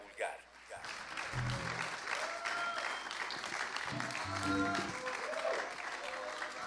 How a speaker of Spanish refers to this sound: Fuerte el aplauso para Alen Ríos, Abel, Tavo y Lalo Morales.